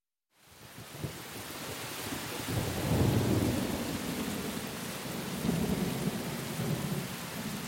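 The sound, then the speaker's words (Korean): Steady, dense rain falls at night, hissing continuously throughout, with deep low rumbles swelling up underneath partway through, like thunder. No voices, just the constant wash of falling rain. “밤에 비가 오더니 아침에는 날이 활짝 개었다”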